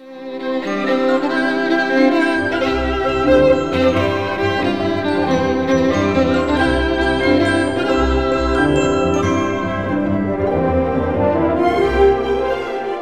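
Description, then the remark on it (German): Festive orchestral music plays steadily and fairly loud, with bright, bell-like glockenspiel notes ringing above full strings and a warm low accompaniment, no voices present. “Es entwickelt sich eine festlich ausgelassene Stimmung. Das Glockenspiel kommt zum Einsatz.”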